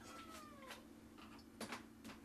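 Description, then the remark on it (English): A female cat meows at a person several times in short, wavering calls, not loud, over a steady low hum and faint clatter, while someone is doing dishes. “There's a cat meowing at me, little jerk here, and I'm also doing dishes.”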